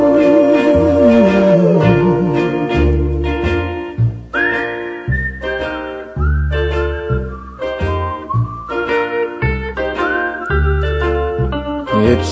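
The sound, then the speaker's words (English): A whistled melody glides and sustains over a bouncy instrumental backing, the whistle bright and prominent with sliding notes between phrases, carrying a cheerful tune for several bars. “It's a whistling tune for walking in the night.”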